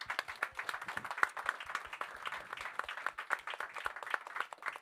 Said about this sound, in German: Danke, Applaus für die beiden.